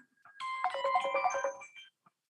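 A melodic phone ringtone plays a bright, rapid sequence of tonal notes for about a second and a half, then cuts off abruptly; no one speaks over it.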